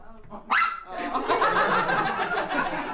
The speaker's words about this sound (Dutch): Dit is Oreo, onze chihuahua. Hij is 7 jaar oud. En hij deed vandaag auditie voor Legally Blond. Hij deed goed zijn best. Hij uh, kon blaffen op commando, bleef netjes zitten.